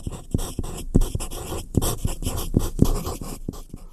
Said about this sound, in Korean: 글씨 쓰는 소리가 오늘 보물 소리입니다. 여러분들 잘 찾아주세요.